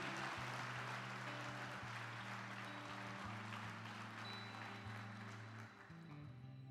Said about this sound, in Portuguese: Pode aplaudir o Senhor porque Ele é Deus.